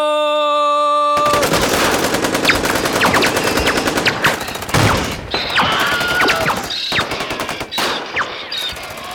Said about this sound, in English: if nobody has anything else, I suppose we can go out on hail gunfire. Hail of gunfire.